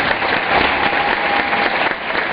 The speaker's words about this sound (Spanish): yo creo que ustedes me regalen un fuerte aplauso para ellos.